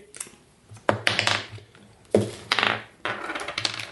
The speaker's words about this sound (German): Ihr anderen könnt, könnt mal einen W6 würfeln. Vier.